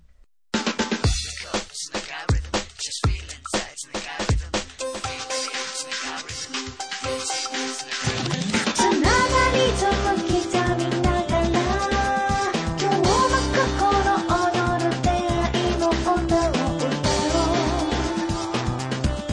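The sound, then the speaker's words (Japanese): An upbeat 30th-anniversary jingle for the FM Nagasaki radio program Sunday Trip opens with sparse, punchy percussive hits, then a full band with bass and bright melody kicks in about halfway and plays loudly to the end, with no voices. “ということで各番組この30周年ねいろんなところでお祝い、えー、メッセージなり流れておりますけれども、はい、私たちサンディートリップも30周年のジングルをですね、うん、以前作らせていただきました、ねはい、久しぶりなのでねこれちょっと聞いていただきたいと思います。”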